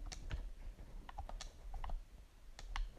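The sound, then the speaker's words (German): Irregular plastic clicks from Xbox game controller buttons, fairly quiet, tapping in uneven bursts over a low background hum with no speech. “Falls man den Controller jetzt hört, das ist halt so, die Xbox-Controller sind ein bisschen lauter.”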